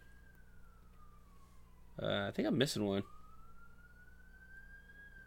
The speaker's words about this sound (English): Ooh, double sirens.